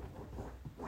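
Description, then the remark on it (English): Soft, scratchy scraping of a dog's nails digging at couch cushions to make a comfortable spot, quiet, a continuous rough rustle that swells slightly near the end with no voices. “Trudy is literally digging in the couch to make a comfortable spot”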